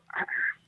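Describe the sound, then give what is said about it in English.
A short, squeaky sneeze in two parts: a quick breathy burst followed by a thin, high, sustained hiss, lasting under half a second with no talking around it. “Bless you, my sweet prince. Bless you.”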